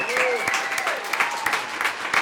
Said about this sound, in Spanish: que es de aplausos también.